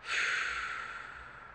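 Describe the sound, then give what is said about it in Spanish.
A single deep, airy breath, inhaled through the nose and released through the mouth, a soft hissing rush of air that swells quickly and then slowly fades, with no talking. “Lentamente empieza a intensificar tu respiración, inhalando por la nariz y soltando por la boca.”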